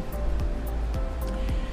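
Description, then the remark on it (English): A steady roar of ocean surf at South Beach, Miami, on a lovely morning, with a heavy low rumble and rushing hiss throughout, no clear pauses between waves, and no voices. “And I thought you might enjoy the ocean in the background.”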